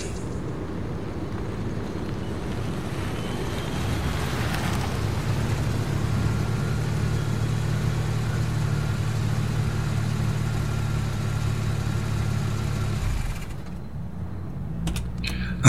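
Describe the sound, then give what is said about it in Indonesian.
A car engine rumbles steadily as the driver pulls the car over on a road, settling into a low, even idle with a broad hum underneath, then cuts off near the end, leaving a quieter background. “Semakin keheranan dan penasaran, aku pun akhirnya menepikan mobilku untuk memastikan apa yang kulindas tadi.”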